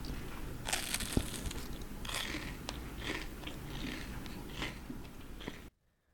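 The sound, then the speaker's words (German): Crunchy golden-brown churros mixed with cinnamon and sugar being bitten and chewed, with repeated crisp, crackling bursts of crunching over about five seconds, fairly loud with no talking, then sudden silence. “Hört euch an, wie knusprig die sind.”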